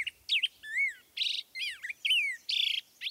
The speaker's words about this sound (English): Like most birds, the male grosbeak begins singing in earnest a few days after reaching his traditional nesting grounds in spring.